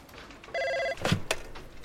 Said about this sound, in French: L'interphone sonne dans le bureau du patron de Nintendo, Hiroshi Yamoshi.